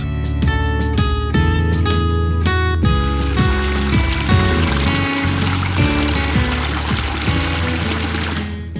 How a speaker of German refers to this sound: Das plätschert hier so schön. Das ist ein Bach, der hier durch Nohen fließt.